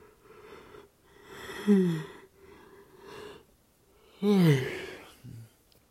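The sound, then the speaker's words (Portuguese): A person yawns twice, each a loud, breathy vocal sound sliding downward in pitch, with quiet breathing between them and a short low murmur at the end. “Pronto, eu não queria ter feito isso, mas eu tive que fazer porque não vai ter edição, infelizmente eu vou bocejar no podcast, porque o corpo humano às vezes ele não, ele não controla todas as, todos os movimentos e tudo que vai acontecer.”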